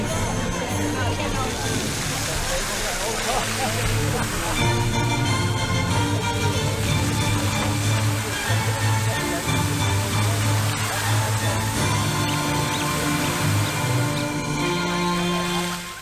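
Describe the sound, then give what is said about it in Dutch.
Water from a restored fountain in the park at the Bataafse Kamp in Hengelo splashes steadily and loudly, a continuous rushing spray that never lets up, with murmuring voices of people mixed in underneath. “Ja, ja niet, eh, van het water ook nog uiteraard ook van de mensen die, die allemaal genieten hier.”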